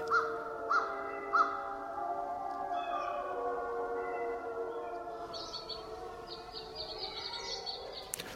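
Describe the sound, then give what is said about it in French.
A yellow-rumped warbler, a small songbird, sings a thin, high, rapid trill in the second half, over a steady bed of long, droning howl-like tones, with a few brief sharp calls near the start. Recorded in Canada at dawn in late March 2007. “Le chant d'une paruline jaune à croupion.”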